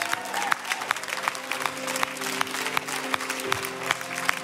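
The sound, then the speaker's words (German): A crowd stands together and applauds to honour God, steadily, dense overlapping claps with sharper individual hits, sustained throughout at moderate loudness, with a faint tonal hum underneath and no clear talking. “Hey, und wenn du in dir Freude und Dankbarkeit hast über diesen Gott, lass mal zusammen aufstehen, ihm Applaus geben und ihn ehren dafür, hey, wie gut er ist.”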